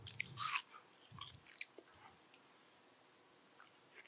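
food or drink, chewing watermelon

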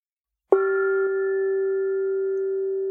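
gong being struck

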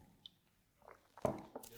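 food or drink, sipping coffee

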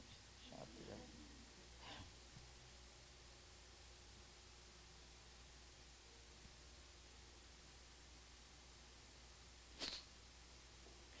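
human body sound, sniffling

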